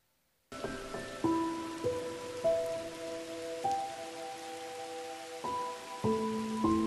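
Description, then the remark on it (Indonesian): A steady hiss of falling rain on a cold night runs throughout, with slow, soft piano-like notes playing over it every second or so. No voices are heard. “Malam ini, hujan tak kunjung reda.”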